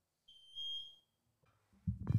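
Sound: smoke alarm beeping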